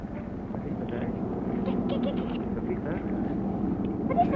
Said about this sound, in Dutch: spitsen de kinderen ineens hun oren. Ze horen vliegtuiggeronk.